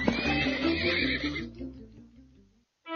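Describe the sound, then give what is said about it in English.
A horse whinnies loudly, a long, shaky, high neigh that trembles downward and fades out over about two and a half seconds, followed by a short pause and the start of another sound; in a story, it is a horse-shaped cookie that has become a large horse. “Right then, the horse-shaped cookie became a large horse and appeared.”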